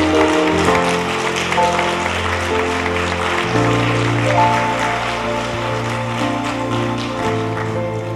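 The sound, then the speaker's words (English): An audience at a worship service stands and claps along in a steady, dense patter over sustained music with deep bass notes and held chords, the clapping loud and continuous throughout. “It's okay to clap if you want.”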